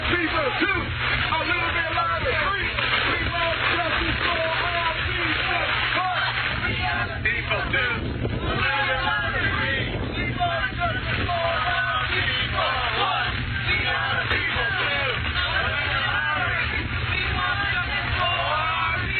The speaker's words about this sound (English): This is South LA in the rain, folks. Hundreds of people marching. Clearly, um, this is not going away.